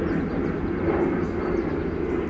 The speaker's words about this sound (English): May we bless anyone on that airplane going to wherever they're going.